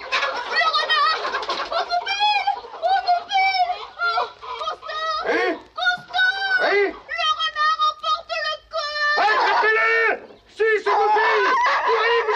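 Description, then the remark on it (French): Frantic squawking and clucking from a rooster and several hens as the rooster is carried off by Renard the fox, loud and continuous, with overlapping shrill cries rising and falling in a chaotic, panicked flurry over about twelve seconds. “C'est le coq que Renard emporte.”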